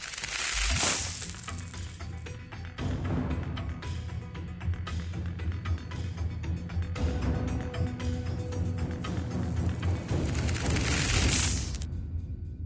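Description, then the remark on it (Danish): A large plastic bottle of Danish water is squeezed and handled, giving dense, irregular crinkling and crackling that runs steadily for about ten seconds before stopping. No one speaks. “Og svaret er den store flaske med dansk vand.”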